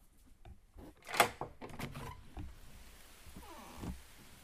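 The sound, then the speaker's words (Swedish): A door latch clicks and the door swings open, with a microphone carried to it, followed by a steady, soft, even hiss of rain falling outside, with a few faint knocks near the start. “Ska öppna dörren så ska ni få höra regn.”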